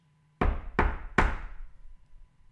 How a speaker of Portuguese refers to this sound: dirigiu-se então à porta número 43 e bateu três vezes.